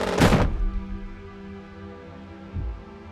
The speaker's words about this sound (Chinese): 院长往前扑倒，身体撞上了墙壁，手抓着胸口。接着，砰的一声，摔到了地上。